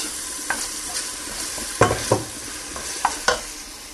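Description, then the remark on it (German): A small diced onion sizzling in hot olive oil in a pot at the start of making a soup, a steady crackling hiss with scattered sharper pops and a few clinks as it's stirred, moderately loud, with no talking. “Ihr hört es, wie es brötschelt.”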